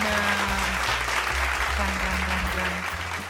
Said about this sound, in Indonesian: Kita boleh juga nih uh, mungkin tepuk tangan virtual untuk para dosen-dosen kita lo.